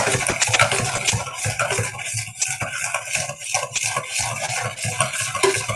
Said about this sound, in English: So that'll get the butter melting and still give me enough time to get the mixture stirred. So I'm going to use my egg whisk.